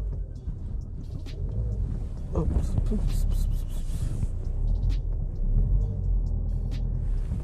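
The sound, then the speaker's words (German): A car engine rumbles steadily as the driver slowly maneuvers the car out of a parking space while other cars wait, one directly behind, with a few brief clunks and faint background noise over the low drone. “Wartet gut, ich muss kurz aus der Parklücke raus. Die Autos warten schon.”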